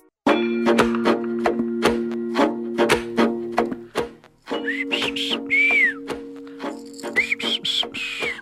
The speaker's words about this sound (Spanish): Así es, ¿cómo anda con ese silbidito, eh? Qué chido.